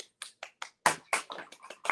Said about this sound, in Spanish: Por favor, un fuerte aplauso para la invitada de hoy